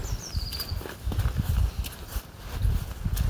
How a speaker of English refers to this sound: You hear the sludgy mud.